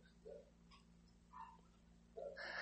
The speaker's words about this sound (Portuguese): Esses cachorros aí é sempre assim, tá? É os escândalos deles.